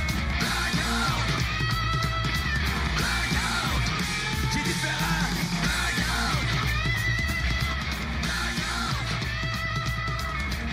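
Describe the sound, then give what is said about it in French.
Loud, dense rock music by a band from Dijon plays steadily with a driving, punchy guitar riff and a heavy rhythm section, while a vocalist screams over the top without letting up. “Et ce matin, on vous réserve un réveil rock, riff incisif, rythmique puissante pour bondir hors du lit et être opérationnel illico.”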